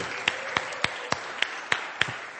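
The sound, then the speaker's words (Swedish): An audience in a church applauding, with seven sharp claps landing in a steady, even rhythm over a continuous hiss of crowd clapping, nearly in unison and moderately loud throughout. “Hörni, vi ger dem en applåd.”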